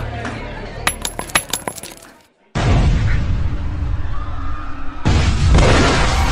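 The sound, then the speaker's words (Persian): A few sharp metallic clinks and rattles, a brief hush, then two loud grenade blasts a few seconds apart, each followed by a heavy, roaring rumble that fills the space. Two grenades are thrown by attackers in Cafe Leopold, a few hundred metres from the Taj Mahal hotel, at 9 pm. “بعد از این دو انفجار انگار رسما بازی براشون شروع شده.”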